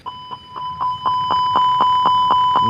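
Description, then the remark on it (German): An airplane cockpit sidestick priority alert, set off by the priority button on the sidestick used to fly the aircraft: a steady electronic tone with rapid rhythmic pulses, about four per second, swelling louder over a few seconds. Clear, with no voices. “Das eine ist der Prioritätsknopf auf dem äh, Sidestick äh, zum Fliegen des Flugzeuges.”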